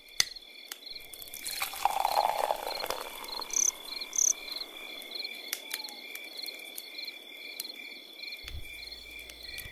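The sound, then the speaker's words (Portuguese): Forest ambience filled with a steady, high-pitched chorus of chirping crickets and insects, with a few brief louder chirps and some soft rustling; no one speaks. “É isso aí, vocês estão ouvindo barulhinho aí diferente? É porque a gente tá na floresta, porque hoje é especial, hoje é temático”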